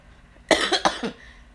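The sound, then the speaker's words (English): A single cough from a person who tried to hold it in, with a couple of quick rough bursts, loud and abrupt, standing alone against a quiet background. “hold it in and then it turned into a cough.”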